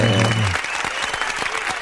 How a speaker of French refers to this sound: Et eh oui, c'est l'émission, c'est maintenant, donc euh, je commence sur les, les applauses avant que l'image arrive même.